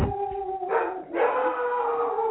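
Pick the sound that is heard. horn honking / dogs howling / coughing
dogs howling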